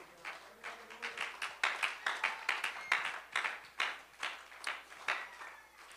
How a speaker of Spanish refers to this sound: Bríndele ese aplauso más hermoso a Él.